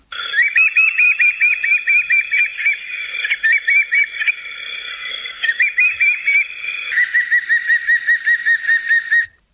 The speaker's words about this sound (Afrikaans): Kyk, daar's twee moontlikhede. Jy kan of die gewone dikkop hê wat so klink.